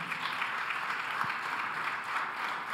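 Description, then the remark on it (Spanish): Sustained applause from an audience, a steady dense wash of many hands clapping at an even loudness for a few seconds, with no voices standing out. “Dile otro aplauso fuerte.”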